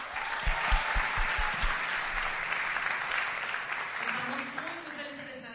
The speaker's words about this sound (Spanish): Se fueron hace unos años y son una pieza valiosa dentro de todo lo que nosotros hacemos, así que ¿por qué no le damos un aplauso?